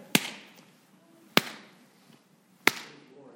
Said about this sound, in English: His frame shrunk, and the people thought him dead, when suddenly the martyr mindful of the promise he had made to his friends, held up his hands high above his head, and as if in an ecstasy of joy, clapped them thrice together.